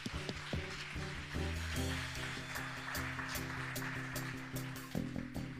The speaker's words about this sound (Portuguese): Obrigado pelas palmas. Muito obrigado.